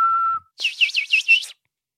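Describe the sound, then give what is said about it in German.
A person whistles through the lips: a short, steady low note, then a brief pause and a higher, warbling run of about five quick rising-and-falling swoops, clear, with no talking. “Könnt ihr das? Könnt ihr pfeifen?”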